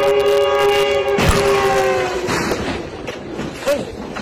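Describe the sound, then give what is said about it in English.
A train horn blares steadily, then cuts off into a sudden heavy crash as the train strikes a plane that had landed on the tracks, followed by several seconds of grinding, clattering wreckage and rumble. “Of course, here's your average everyday plane, train, plane crash.”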